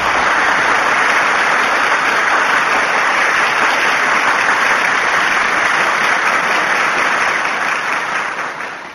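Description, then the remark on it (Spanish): Sustained applause from a crowd for the winner of a film-clip quiz game, a dense, even wash of many hands clapping at steady loudness for several seconds before easing off slightly at the end, with no voices. “Enhorabuena al ganador y un aplauso para él.”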